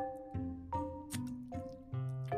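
Wet sips and gulps of cold water from an Entrepreneurista Mugs mug, about six in a steady rhythm, each with a slight throaty swallow. No one speaks.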